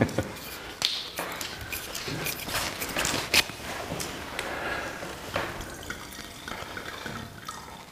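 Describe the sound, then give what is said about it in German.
A relatively young red wine, a 2020 Hochhammer Stein, pours steadily into a glass for several seconds, a continuous gurgling splash broken by a few sharp clinks and taps, fairly loud and without speech over it. “Diese Freude gehört, auch, gehört einfach hier eingeschenkt. Das ist so wichtig. Komm, schenk rein.”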